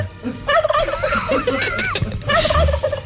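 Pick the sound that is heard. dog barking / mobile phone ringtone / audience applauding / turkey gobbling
turkey gobbling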